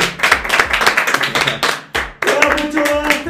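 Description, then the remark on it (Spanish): A crowd claps steadily for a few seconds, a dense, loud wash of many hands with a brief dip in the middle, then the applause swells again. “¡Aplausos!”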